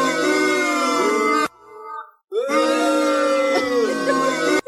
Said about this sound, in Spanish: A ver, más abucheos.